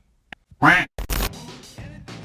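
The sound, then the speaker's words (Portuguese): A loud, nasal Donald Duck cartoon quack bursts out, followed by a string of rapid, raspy squawking chatter in the same comic duck voice, clear with no other talk. “Salvo o Pato Donald, que não usa calças.”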